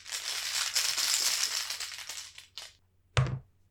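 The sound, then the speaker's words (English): Heavy game tokens in upgraded, weighty cases rattle and shuffle steadily for about two seconds during a board game, a brief clatter follows, then a single solid, weighty thunk as one is set down. “If my tokens sound different, it's because they are different. I've upgraded the cases and they're really nice and weighty.”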